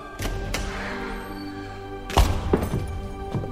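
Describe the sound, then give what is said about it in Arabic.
A room door is flung open with a sudden heavy thunk, surrounded by a few lighter knocks and bumps over a steady low rumble in the background. “فجاه فتح باب الغرفه ودخل منه خمسه رجال اغراب يتطاير الشر من عيونهم”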